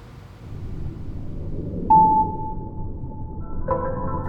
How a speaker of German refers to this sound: Also, Stille aus dem Magazin der österreichischen Mediathek.